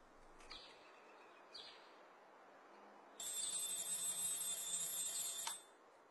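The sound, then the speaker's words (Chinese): Sparrows outside the window give two brief, high chirps in the morning, then a loud, steady, shrill electronic ringing from an alarm clock sounds for about two seconds before cutting off. No one speaks. “窗外的小麻雀正在叽叽喳喳叫，关上了闹钟，我伸一个懒腰，我要对全世界说一声早上好。”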